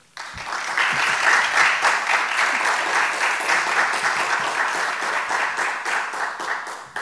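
A crowd breaks into sustained applause, many hands clapping in a dense, steady roar that holds for several seconds before easing slightly at the end; applause for the guests after an introduction of Dr. Cox Salomar, 2012 Partido Popular Democrático candidate for resident commissioner of Puerto Rico.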